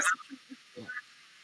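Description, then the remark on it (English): A cat makes a brief, low, throaty call, preceded by a few soft, short chirps, all fairly quiet against faint background hiss. No one speaks. “That's a cat.”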